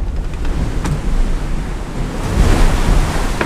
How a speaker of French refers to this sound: J'arrive dans le front, qui est plus fort que prévu, surtout en rafale, il y a des grosses grosses rafales. ouais, je crois qu'encore une fois, je crois que c'est 44 nœuds le max à peu près.